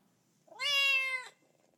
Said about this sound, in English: And if you've read any children's books in English, then you're familiar with these sounds also. A cat says meow.